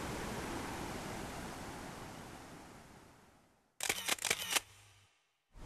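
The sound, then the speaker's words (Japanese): A steady, broad roar of rushing water from the large, high-volume Ryuzu Falls (Ryūzu no Taki) gradually fades, then a quick burst of mechanical camera shutter clicks sounds before brief silence. “すごいこの水の量これちょっと見た中では一番水量が多いですねあこのなんかこの滝壺に滝がこの水が落ちてくる勢いがすごいですね”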